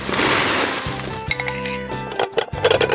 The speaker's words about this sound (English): The second library is bowls. 612 sounds. I broke a bunch of bowls. But I also did normal bowl things.